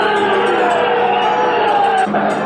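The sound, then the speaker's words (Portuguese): A large crowd at the Quartel do Carmo booing loudly at 18:39 as military vehicles start to move off, a dense, sustained roar of many voices with long drawn-out jeering tones that stays steady throughout with no break. “Uma vaia tremenda da multidão.”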